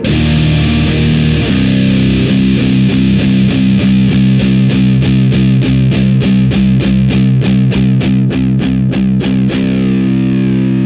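A heavily fuzzed electric guitar, played through a Sound of Justice Hizumitas fuzz pedal with its drive knob turned all the way up, plays a steady, evenly repeated chugging riff, thick and saturated, loud and alone with no talking.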